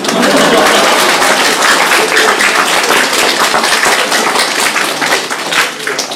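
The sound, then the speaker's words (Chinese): A crowd applauds steadily, with many hands clapping in a dense, hissing roar that stays loud for about six seconds and dips slightly near the end. No one speaks. “哎，各位，掌声呢？”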